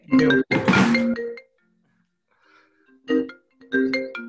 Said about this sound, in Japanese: あ、電話出なくて大丈夫。